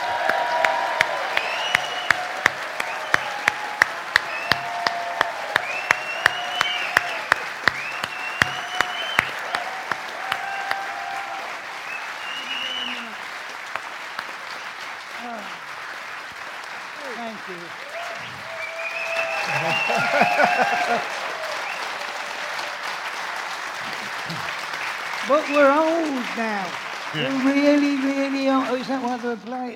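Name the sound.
audience applause and cheering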